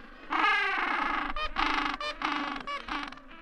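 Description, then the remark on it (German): Loud, raspy braying calls from a colony of gentoo penguins in Antarctica, harsh overlapping cries in bursts with brief pauses, dense with no talking. “Michael Beaulieu erforscht sozusagen die Sprache der Eselspinguine in der Antarktis. Und die ist nicht nur vielfältig, sondern auch laut.”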